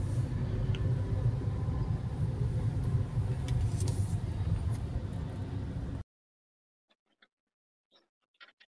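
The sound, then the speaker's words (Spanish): Buses and city traffic on Calzada Tlalpan, with about ten buses present, rumble heavily and continuously, a loud, low roar lasting about six seconds before cutting off abruptly to near silence broken by a few faint clicks. “Aquí en Calzada Tlalpan ahorita hay fácil 10 camiones.”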